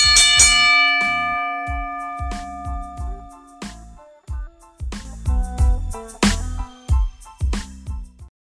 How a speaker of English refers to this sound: Let's get this show started. Ring the bell.